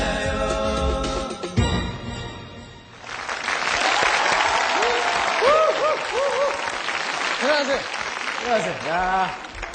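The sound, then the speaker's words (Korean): Loud, sustained audience applause builds after a brief musical ending of a rap-style dance song performance and keeps going steadily, a dense wash of clapping with a few rising cheers and whistles poking through the crowd noise. “다시 한 번 박수 보내주십시오.”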